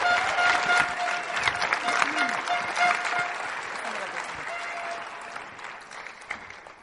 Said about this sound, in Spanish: Denle un fuerte aplauso a mi esposa, por favor.